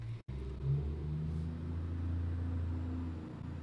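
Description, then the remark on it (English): A massive truck rumbles past, a deep steady engine drone with shifting low tones that swells and then slowly fades over a few seconds, with no talking. “There's a massive truck driving by me right now.”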